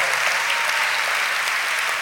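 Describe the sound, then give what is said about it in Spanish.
Steady applause from an audience, a dense wash of many hands clapping at an even loudness for about two seconds, with no voices standing out. “Ay, este aplauso está mejorando.”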